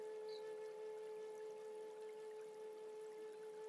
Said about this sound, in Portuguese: Bem, bem calmo. Água fluindo gentilmente, lentamente.